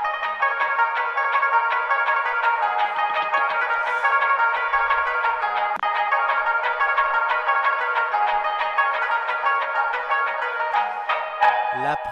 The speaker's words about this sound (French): Attends, laisse-le sonner encore un peu, là je l'entends pas le téléphone sonner.